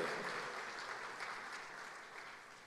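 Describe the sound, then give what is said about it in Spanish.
An audience claps steadily in applause to God, a dense wash of overlapping handclaps that holds fairly even throughout and tapers only slightly toward the end, with no voices standing out. “Démosle un aplauso al Señor, a nuestro Dios de poder.”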